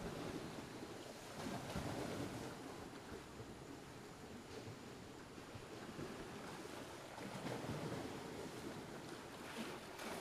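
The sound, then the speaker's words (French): Steady surf washes and rolls continuously at a beach, with gusts of wind buffeting the microphone; a faint creak and knock of small red and blue boats with monster-head prows rocking on the waves may sit beneath the waves. “De petites barques à tête de monstres rouges et bleus se bercent au gré des vagues.”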